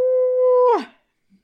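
A big, loud vocal yawn: a steady mid-pitched voiced tone held for most of a second, then sliding down into a breathy exhale, with no talking over it.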